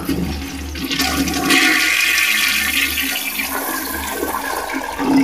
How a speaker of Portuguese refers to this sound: Claro que não, pelo amor de Deus, puxa essa descarga agora.